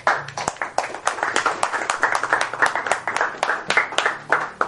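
An audience applauds steadily, many hands clapping in a dense, crackling stream that holds its loudness for the whole stretch, with faint murmurs beneath.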